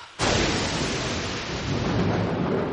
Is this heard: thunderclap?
yes